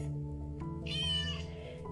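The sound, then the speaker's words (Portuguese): A single drawn-out cat meow rises clearly for about half a second, fairly loud, over a steady low musical hum that continues throughout. “À procura dos gatinhos, a mamãe gata sai para a rua.”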